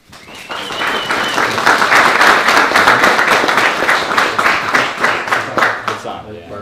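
An audience claps steadily to welcome a guest speaker, a dense patter of many hands swelling quickly and holding strong for several seconds before tapering off at the end.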